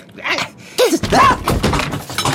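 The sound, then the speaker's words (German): A person tumbles off a chair when the other side suddenly lets go in a tug over a mouse: a sudden loud crash and thump, followed by a couple of seconds of clattering, scraping noise with short vocal cries mixed in. “Ich bin voll vom Stuhl gefallen.”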